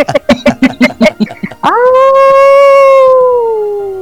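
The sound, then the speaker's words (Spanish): A person imitates a dog's howl: a rapid series of short yips, then one long, loud, sustained rising howl that slowly fades, with no talking. “Pues sí, que yo aullo bien.”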